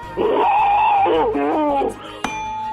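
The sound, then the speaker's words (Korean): A voice imitates boiling water, performed as an entry in an impressions contest segment, with a loud, sustained gurgling hum that wobbles and bubbles in pitch for about two seconds, then ends with a sharp click. “물 끓는 소리입니다. 물 끓는 소리.”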